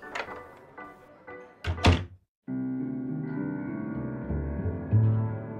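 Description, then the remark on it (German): A few light knocks and creaks lead to a heavy, narrow door, opening onto a long unlit corridor, thudding shut, loud and solid. A moment of silence follows, then a steady, low tonal drone swells in. “Durch eine schmale Tür betraten wir einen langen Gang, in dem es keinerlei Beleuchtung gab.”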